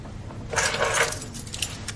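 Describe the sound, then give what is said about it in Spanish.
Keys jingle and clink as they are picked up, a brief burst of bright metallic rattling, with a few lighter clinks trailing off against a low background hum. “Coge unas llaves.”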